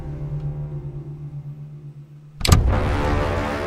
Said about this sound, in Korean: 잠금 장치가 풀리는 소리가 났습니다.